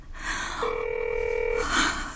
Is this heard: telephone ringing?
yes